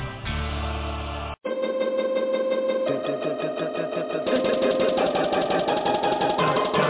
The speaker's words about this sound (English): Man, it sound like some some straight superhero music, don't it? Sound like somebody about to swoop down out the sky.